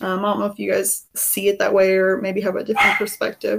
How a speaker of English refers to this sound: Also, that's my dog. Sorry if you heard a bark.